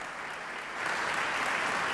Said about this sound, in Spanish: Aplausos para los músicos, queridos amigos. Triunfal. Este concierto en directo desde el Teatro Colón.